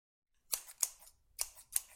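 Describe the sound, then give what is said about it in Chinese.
Scissors snip through hair four times in two quick pairs as a mother cuts someone's hair into a flat-top, each cut a crisp, bright, high-pitched metallic click. Nobody speaks, and the snips stand alone against near-silence. “如果你想自己的脑袋上被剪刀戳出一个大窟窿的话，尽管反抗啊！”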